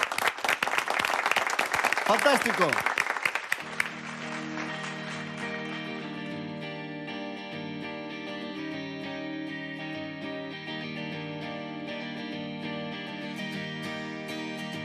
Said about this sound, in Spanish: Un fuerte aplauso